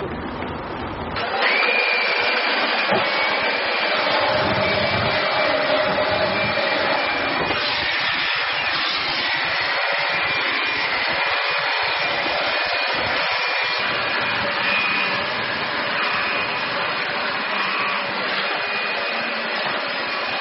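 A vacuum cleaner, used in a demonstration of putting out a fire at home, switches on after a brief moment and runs steadily throughout, a loud, constant whooshing roar with a faint high whine riding on top. No one speaks.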